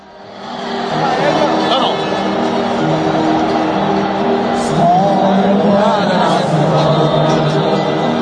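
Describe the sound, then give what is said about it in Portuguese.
A large crowd of football fans sings the traditional fans' version of a song as a sustained stadium chant, many voices blending into a loud, steady wall of melody that swells in after a second and holds throughout. “Vamos ouvir então a versão do torcedor, a versão tradicional com a torcida cantando”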